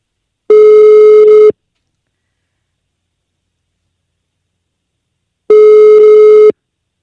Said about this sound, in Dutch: We gaan haar bellen, want ze zei ze zit lekker op skivakantie.